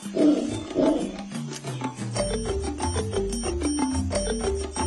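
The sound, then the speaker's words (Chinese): A howler monkey lets out two loud, rough, roaring howls in quick succession, then a bright, plucky melody of repeated tuned notes plays on without any voices. “是猴子，Right，那是一只吼猴。”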